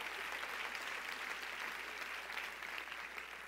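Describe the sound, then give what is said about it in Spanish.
An audience claps steadily for the Lord during a church service, a dense, continuous wash of many hands applauding at an even loudness throughout, with no voices standing out. “Dele fuerte ese aplauso si usted se lo va a dar al Señor, si usted quiere.”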